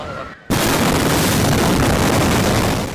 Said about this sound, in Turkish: Bu genç çiftin ise en mutlu gününde yaşandı patlama. Düğün günlerini ölümsüzleştirmek isteyen gelin ve damat çekimdeyken önce bir ses duyuldu. Ardından şok dalgasıyla ortalık savaş alanına döndü.